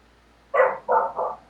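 A dog barks three times in quick succession, each bark short and sharp with a slight pause between, loud against an otherwise quiet background.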